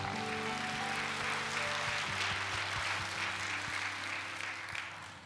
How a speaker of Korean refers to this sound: 할렐루야. 우리 가운데 임하신 살아계신 하나님께 감사와 영광의 박수를 올려드리겠습니다.